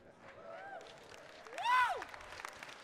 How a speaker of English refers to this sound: You're clapping real big, but I don't know if you like where this one's going to go.